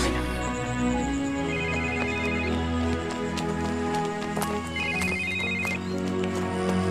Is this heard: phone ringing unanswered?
yes